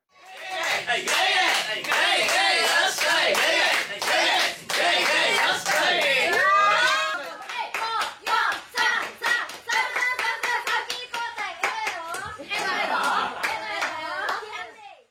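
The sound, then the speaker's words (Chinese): A group in Japan claps in a steady rhythm while many voices chant loudly together in a drinking call urging one person to down their drink in one go. The chanting is thickest at first, then gives way to sharper, faster clapping with voices still calling over it. “简单的描述呢，就是说你喝着喝的时候呢，突然会有一群人开始起哄，然后会针对某个人，然后这个人呢就必须在那个起哄的那个过程中呢，把手里的那杯酒就是一饮而尽。”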